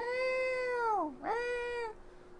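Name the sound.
cat in heat yowling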